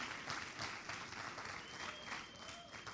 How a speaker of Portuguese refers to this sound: Você pode dar um glória a Deus e aplaudir esse Deus maravilhoso. Agora aplauda esse Deus maravilhoso, querido. Exalta esse Deus maravilhoso.